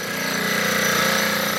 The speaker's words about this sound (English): This is the sound of machinery hammering a section of corrugated steel wall that's 40 feet tall.